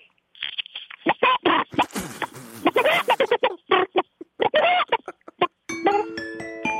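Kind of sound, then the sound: vocal imitation, person imitating a chicken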